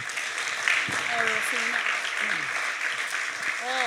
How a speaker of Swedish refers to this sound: Vi har lite blommor som vi vill ge till er. Wow. Ni kan väl ge dem en stor applåd.